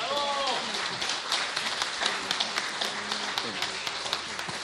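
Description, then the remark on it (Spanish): An audience breaks into applause for two invited women who have come up from their seats to the stage, a dense wash of many hands clapping steadily for several seconds, with scattered louder claps and a few voices and cheers mixed in. “Ahora sí, un aplauso de que las invitadas llegaron aquí.”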